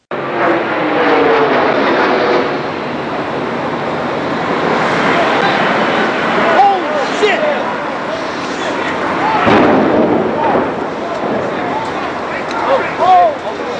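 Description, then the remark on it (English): Footage of the first plane hitting the World Trade Center in the September 11 terrorist attacks: a loud, continuous roar of a low-flying jet plane, voices calling out beneath it, then a sudden heavy impact bursts through the noise and the chaotic rumble carries on. “That was the footage shot of the first plane hitting the World Trade Center.”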